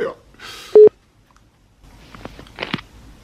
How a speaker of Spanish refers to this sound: Ahí está marcando.